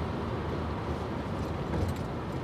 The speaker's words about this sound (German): ich fahr Auto.